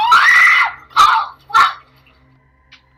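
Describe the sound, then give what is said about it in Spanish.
In a recorded video clip, children trying to contact an entity called Charlie Charlie scream in three loud, high-pitched bursts: one long shriek followed by two shorter ones. Then the sound drops to near silence with a faint, brief noise at the end. “Sí, como lo escucharon hace rato, eh, unos niños simple y sencillamente están tratando de buscar contacto con esta entidad denominada Charlie Charlie.”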